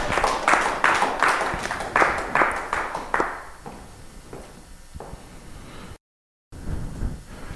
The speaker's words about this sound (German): Applaus. Äh, Heiße Stuhl unter einem tosenden Applaus. Erich Hess.